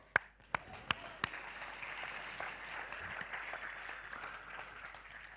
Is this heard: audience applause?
yes